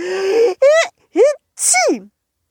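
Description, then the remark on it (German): A voice acts out a snowman's sneeze from a tickle in the nose: three short, rising, tuneful gasps build up, followed by a louder, hissy final burst that slides downward and stops. “Du Schneemann, hör doch einfach mal auf zu niesen, dann krieg ich sie ja.”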